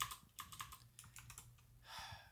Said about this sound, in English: I hear that EVGA keyboard. Yeah, dude, you got EVGA one, keyboard.